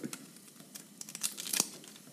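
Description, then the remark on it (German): Dry papery crinkling and soft tearing as the thin skin is pulled off a halved onion with its ends cut off, a quick run of quiet crackles and rustles with no one talking. “Ich halbiere die Zwiebel und ziehe die Schale ab.”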